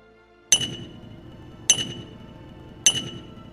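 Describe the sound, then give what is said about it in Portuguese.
Artisans at work in a town: three sharp metallic clinks ring out at a steady pace, about a second apart, each bright strike trailing off over a low, busy murmur of work sounds. “tu escuta os artífices trabalhando”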